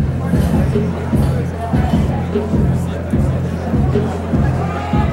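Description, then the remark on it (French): Loud music with a steady, thumping bass beat fills a busy burger restaurant, while a crowd's indistinct chatter and babble carry on underneath throughout. “Ça sent la friture jusque dehors et la musique y est très forte.”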